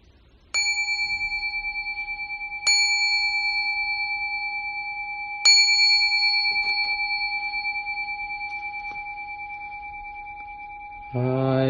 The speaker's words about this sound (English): Great, so let's do that together. I'll ring the bell three times to begin.